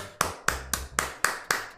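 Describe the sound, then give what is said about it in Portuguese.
Six sharp knocks on a door in a steady, quick rhythm, fairly loud, each one ringing briefly before the next, with no voices. “Fulano bate na tua porta.”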